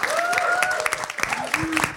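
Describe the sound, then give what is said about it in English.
A crowd applauds CUNY Law School for hosting the event, with dense, steady clapping that holds at a fairly loud level throughout, while a voice rises and falls briefly above the claps. “Uh, just a quick round of applause for CUNY Law School for hosting us.”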